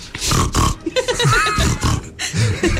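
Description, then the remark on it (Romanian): A person imitates the sound a pig makes in Hungarian with a string of rough, snorting grunts, several bursts in quick succession, fairly loud with some wheezy squeals mixed in. “A, ah, cum face, cum face porcul în maghiară”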